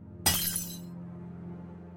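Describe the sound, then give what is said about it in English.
A torch bumps against a railing and slips from a hand, and its small glass lens shatters on stonework in one sharp crash, bright tinkling fragments dying away within a second, leaving a low steady hum underneath. “And that torch bumps up against the railing, slips from your hand, and then shatters to pieces.”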